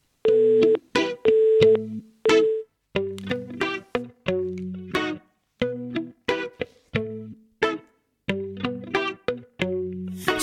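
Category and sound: song intro music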